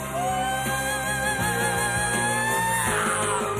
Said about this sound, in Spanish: Otro grito.